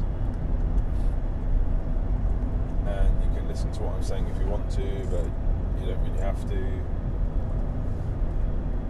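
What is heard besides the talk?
car driving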